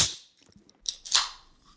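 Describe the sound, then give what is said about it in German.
A chilled red Coca-Cola can cracks open: a sharp click, then a quick pop with a short fizzing hiss that fades away. No one speaks. “Ich habe echt überlegt und dachte mir, eine Flasche ist eigentlich praktischer. Und dachte mir aber, dieser Sound”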